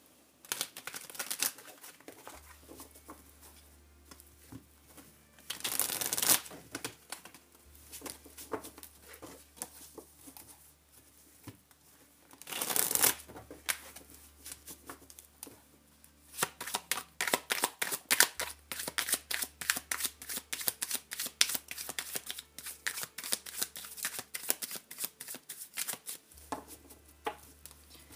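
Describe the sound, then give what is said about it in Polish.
Tarot cards from the Trzynastka Nekro tarot deck being shuffled for a March 2021 Scorpio reading, five cards to be drawn: two quick riffling bursts, then a long stretch of rapid, papery flicking and snapping with no voices. “Y, wylosuję 5 kart i na koniec wskazówkę z anielskich kluczy.”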